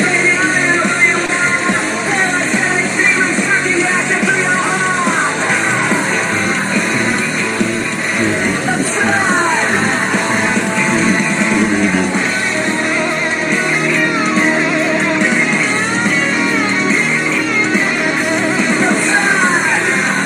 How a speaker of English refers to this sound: The Banshee screams, I think, are from like 01.